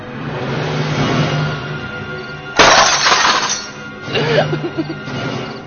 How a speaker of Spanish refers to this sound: La vio desplomarse entre una granizada de cristales.